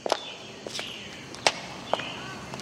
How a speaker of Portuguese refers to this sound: Imagine que você está caminhando.